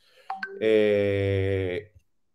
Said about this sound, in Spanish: Espera, que voy a cerrar WhatsApp para que no suene.